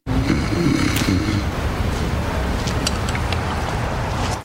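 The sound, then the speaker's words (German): A loud, rasping snore-like rumble drawn out continuously for several seconds, guttural and noisy with a rough throaty drone that stays steady to the end. “Also, es war ja so ein Schnarchen zu hören.”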